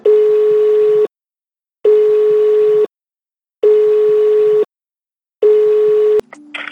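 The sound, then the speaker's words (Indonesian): A phone ringing tone over the line as a friend is called: four long, steady beeps with even pauses between them, loud, cut off by a short clatter as the call picks up. “kita, kita, kita telepon aja, coba yuk telepon. Ayo telepon. Ya, tar, tar, gua telepon ya.”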